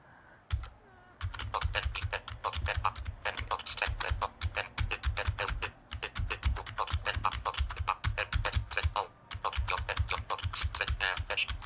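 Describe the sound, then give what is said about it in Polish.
Rapid, steady typing on a computer keyboard, writing a test note, with dense clacking keystrokes in bursts separated by brief pauses; no voices. “Teraz możemy w ramach, ja tu jeszcze może coś dopiszę, to jest notatka testowa,”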